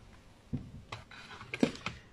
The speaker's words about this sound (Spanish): Bien, vamos a sacar este teclado de aquí.